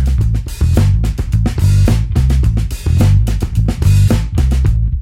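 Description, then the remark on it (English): A tight funk groove of punchy electric bass and drums, with crisp snare and hi-hat hits locking into a busy, syncopated bass line at a steady, driving tempo. No voices. “Let's add Russ's drums in and listen to how the two parts fit together.”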